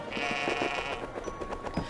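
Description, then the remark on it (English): A lamb meant for the evening sacrifice at a temple lets out a single wavering bleat lasting about a second, fairly loud, as it runs away amid confusion, followed by scattered background clatter and noise. “And in the confusion and noise, the lamb for the evening sacrifice ran away.”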